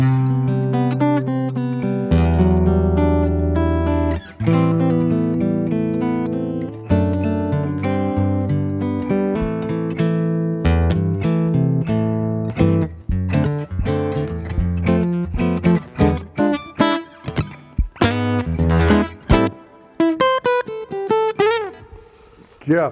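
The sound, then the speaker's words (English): Bright acoustic guitar played with a pick, sustained chords giving way to quicker single-note runs and crisp plucks near the end, played on its own with no talking. “God, that sounds very acoustic if you play it with, you know, I'm using the pick, but.”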